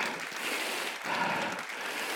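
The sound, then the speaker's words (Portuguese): An audience claps steadily throughout at a church worship service, a strong round of applause for the Lord: a dense, even patter of many hands with no pauses and no voices, holding at a fairly constant loudness. “Nós já vemos, se você crê também, dê para ele uma forte salva de palmas.”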